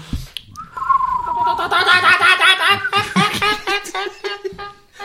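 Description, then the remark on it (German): People in a room whistle and chirp in imitation of birds, a busy run of warbling, trilling calls, broken by bursts of laughter and a quick clap near the start. “Oh, so viel äh, Gezwitscher im Raum.”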